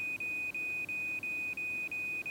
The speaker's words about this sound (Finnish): heräsin keskellä yötä yhden aikaa palovarottimeen ääneen.